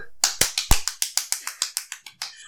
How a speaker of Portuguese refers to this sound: Eu tenho pena do editor. Então vamos bater editora. uma salva de palmas para o Big aqui. Tá bom. 3, 2, 1.